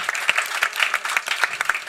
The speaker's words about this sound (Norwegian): Veldig bra. Det fortjener vel også en klapp.